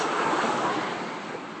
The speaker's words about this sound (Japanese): タイヤの音もね、今入ったと思いますけども、乾いたタイヤの音で